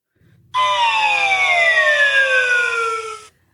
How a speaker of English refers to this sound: Gotta love that bankruptcy noise.